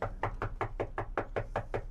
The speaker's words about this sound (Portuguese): Mas pera aí, bateram na porta, gente.